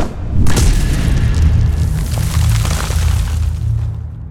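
A massive, deep boom as an enormous creature, 100 feet long and 20 tons, slams into the ground in front of a throne room, followed by a sustained crumbling rumble of shattering rock and debris, loud.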